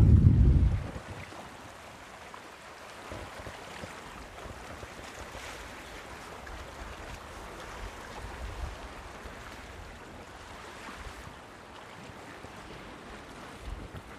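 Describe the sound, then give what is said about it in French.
Steady outdoor shoreline ambience on the island of Noirmoutier: a continuous wash of water and waves mixed with wind, opening with a brief loud rumble of wind buffeting the microphone's furry windscreen, no voices. “ASMR, l'île de Loire-Moutier.”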